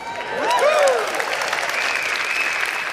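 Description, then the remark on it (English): An audience breaks into steady, sustained applause, a dense wash of clapping that swells quickly and holds at a fairly loud level, with a few whoops and cheers rising over it. “Wonder Woman spent her entire life, y'all can clap.”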